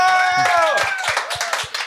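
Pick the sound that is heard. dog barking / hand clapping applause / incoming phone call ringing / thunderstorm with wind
hand clapping applause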